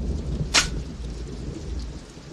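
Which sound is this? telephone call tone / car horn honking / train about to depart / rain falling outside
rain falling outside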